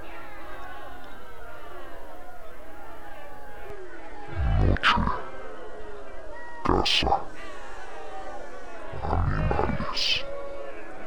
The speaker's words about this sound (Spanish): Gruñó el duende que se encontraba al otro extremo de la mesa. Al parecer era el líder del clan de los duendes.